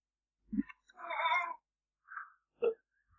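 A cat lets out a drawn-out, wavering meow, then a short chirp-like mew, with a couple of soft dull thumps around it. No talking.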